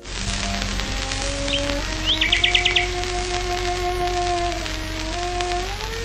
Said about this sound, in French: On est en 1924. La violoncelliste… est en train de jouer dans son jardin et voilà qu'un rossignol se joint à elle. Magnifique et bucolique duo, capté avec les moyens sonores de l'époque.